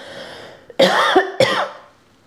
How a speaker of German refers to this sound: sorry, ich muss kurz husten